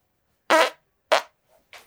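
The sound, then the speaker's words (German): Three short, sputtering fart noises made with the mouth into the microphone, in quick succession and fairly loud, the last one cut off at the end, with silence between them and no talking. “habe ich nochmal einen Pups da gelassen.”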